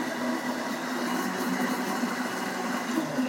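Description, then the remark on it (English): A blender runs at a steady speed, emulsifying a ranch dressing with softened cream cheese; its motor gives off a constant whirring hum with a low drone and a rushing hiss. The sound stays loud and even throughout, with no talking. “My last ingredient that I'm gonna add in the blender here is the distilled white vinegar.”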